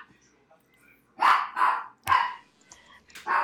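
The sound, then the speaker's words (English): A dog barks loudly at the front door, four sharp barks in quick succession with a brief pause before the last one, against an otherwise quiet background. “He's seen a ghost at the front door.”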